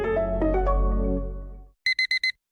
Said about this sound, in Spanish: Pasarse al SEAT León híbrido con SEAT Flex es tan fácil como posponer la alarma.